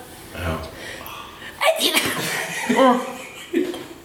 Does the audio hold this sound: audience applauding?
no